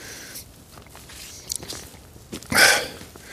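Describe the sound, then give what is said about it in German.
A hard cough drop shifts around inside a mouth and into the cheek, making sporadic wet clicks and small rattles, with one louder smacking burst near the end and no talking. “Ich habe mir einen Hustenbonbon reingesteckt. Das klingt natürlich nicht so gut, so äh, in die Backe kommt das.”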